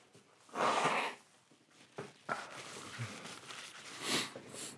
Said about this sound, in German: Lass mich ganz kurz meine Nase putzen, Baby.